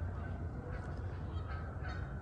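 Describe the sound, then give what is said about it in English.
Geese that have just landed on the water honk repeatedly over a steady outdoor background, their calls overlapping in a loose, irregular chorus. “just landed in the water.”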